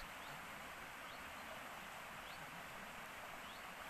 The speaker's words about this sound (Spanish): El sonido. El sonido del agua. Del río cuando baja. El agua fluir.